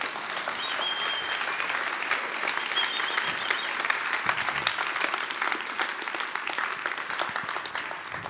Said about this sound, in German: du kriegst stellvertretenden Applaus für alle Helden, die Apostelgeschichte leben. Danke dir. Dankeschön.